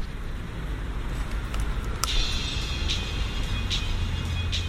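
Steady street traffic with cars rumbling past, a constant low roar filling the scene, with a sharp squeal of brakes cutting through midway and recurring high hisses.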